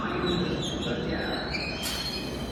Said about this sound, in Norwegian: Og den tuben som ankommer, skal ta ham videre på riktig vei. For når toget stopper ved perrongen, så går han inn og setter seg